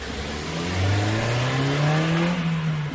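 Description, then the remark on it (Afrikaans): A 1.5-litre, 88 kW car engine revs, its pitch climbing steadily and then holding high for a couple of seconds, loud and continuous with no voices. “'n Beskeie 1.5 liter masjien doen diens.”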